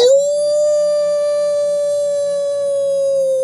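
A single long wolf howl, loud, rising briefly at the start and then holding one steady pitch for several seconds with no other sounds around it.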